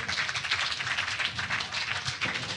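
A brief burst of applause: steady, dense clapping filling the whole moment at a fairly even loudness, with no voices over it.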